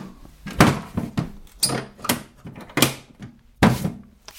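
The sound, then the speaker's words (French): The lid of a magic-trick box holding sand and oysters creaks and knocks shut in a series of short wooden creaks and thumps, about six of them spread unevenly over a few seconds, with no talking. “Je referme la boîte magique.”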